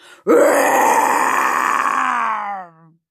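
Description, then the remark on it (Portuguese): A single loud, sustained lion's roar voiced by a person, a rough, harmonic growl lasting about two and a half seconds, its pitch slowly sliding down before it trails off. “O leão levantou a cabeça e rugiu.”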